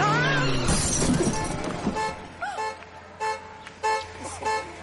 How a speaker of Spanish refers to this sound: Ha roto el parachoques del coche de al lado